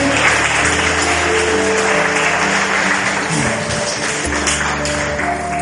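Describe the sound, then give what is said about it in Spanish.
Sustained applause from a crowd, offered to the Lord after a prayer, dense and steady for several seconds, with a low sustained organ-like tone and musical hum running underneath the clapping. “Denle un aplauso al Señor, por favor, si es tan amable.”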